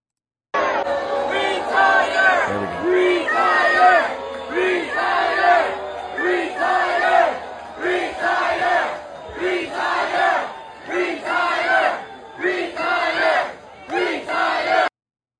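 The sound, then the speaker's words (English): A large crowd at a rally chants "retire" over and over in a steady rhythm, loud, each shout rising and falling in unison, roughly ten repetitions; many in the crowd hold Andy Beshear signs. “Okay, you see the people they're chanting retire.”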